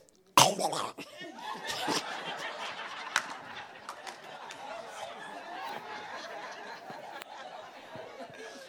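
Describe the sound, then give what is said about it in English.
A person loudly clears their throat in order to spit, starting with a sharp hacking burst and trailing into a long, raspy, gurgling rattle, with no other talk. “I'm trying to clear my throat for a spit.”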